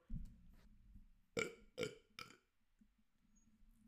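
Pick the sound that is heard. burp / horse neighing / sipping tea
burp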